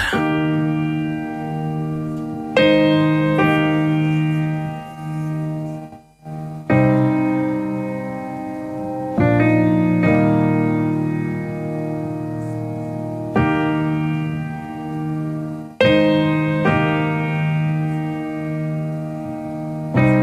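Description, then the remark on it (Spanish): A new pop song plays at a steady, full volume, with sustained chords that change every few seconds and a warm, reverberant sound. No voices can be heard over it. “vamos a escuchar lo nuevo de …”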